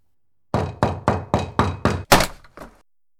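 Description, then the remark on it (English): Six quick, heavy thuds pound against a door in steady rhythm, then a louder splintering crash as something smashes a hole through the door, followed by a couple of fading knocks. Forceful, no voices. “Now there's a hole in my door.”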